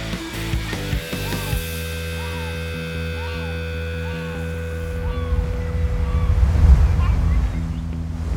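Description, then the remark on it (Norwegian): Wind rushes steadily over rolling ocean surf, a continuous broad wash that swells louder toward the end, with faint sustained tones hanging above the noise. “Vinden blåste feil vei, så han ble liggende nede i Danmark og venta på at vinden skulle snu.”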